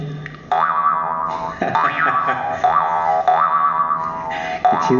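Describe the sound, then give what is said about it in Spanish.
An Italian jaw harp (marranzano) twangs loud, plucked about five times in a loose rhythm, each pluck sending a wobbling, vowel-like boing over a steady buzzing drone, with no voices. “Este es un arpa de boca.”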